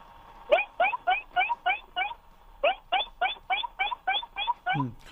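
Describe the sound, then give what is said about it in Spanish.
A person imitates a baby seal chasing its mother, giving quick, squeaky, bleating calls in two rapid bursts of about six and eight, fairly loud, with no other talking. “Es foca bebé de Reino Aventura persiguiendo a su madre.”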